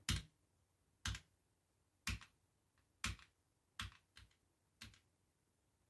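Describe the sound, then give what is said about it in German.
Slow, deliberate key presses on a backlit computer keyboard: about seven crisp clacks spaced roughly a second apart, with one quick double tap, over a quiet background and no talking. “Oh mein Gott, diese Tastatur ist einfach so geil.”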